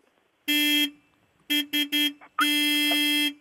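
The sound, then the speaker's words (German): A car horn honks loudly: one long blast, then three quick short toots, and finally a long sustained blast, with no talking. “Da wird gehupt”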